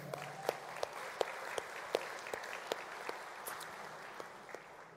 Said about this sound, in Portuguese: Dê uma salva de palmas a isso.